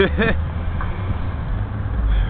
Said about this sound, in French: C'était juste un groupe de, je sais pas, trois Estoniennes, trois jeunes, dans une voiture, qui se sont éclatés à faire des grands gestes et grands cris avec des dents blanches et des grosses lèvres rouges.